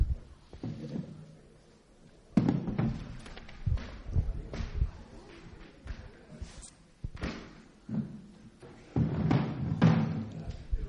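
A chair is picked up and set down, giving several hollow thumps and knocks scattered over a few seconds, with soft shuffling and rustling between the impacts.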